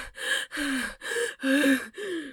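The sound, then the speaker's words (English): A voice acts out being out of breath, stopping and catching a breath, with five quick, loud gasping breaths in a steady rhythm and no other sound. “I'm supposed to be like out of breath, stopping, catching a breath”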